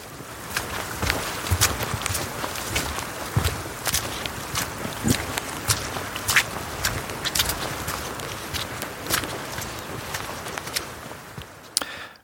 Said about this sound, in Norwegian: Ja, dette var ti sekunder av en tre og en halv times fottur i Aurlandsdalen. Eh, det høres for meg ut som et eh, litt stusslig substitutt eh, for å gå i fjellet.